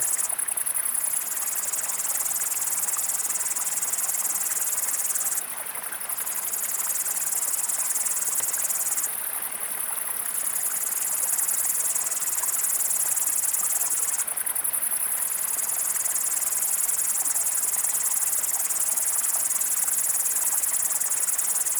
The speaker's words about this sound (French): j'ai trouvé cet espace noir très agréable avec euh, cette euh, sauterelle cymbalière toute seule, accompagnée donc des, des grandes sauterelles vertes tout autour et de ce ruisseau qui s'écoule euh, joyeusement.